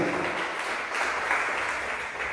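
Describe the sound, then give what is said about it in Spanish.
A church audience claps for the Lord, a dense wash of many hands with no distinct individual beats, holding at an even, fairly loud level throughout with no voices on top. “Gloria a Dios, dele palmas al Señor, porque solo Dios puede llenar el vacío.”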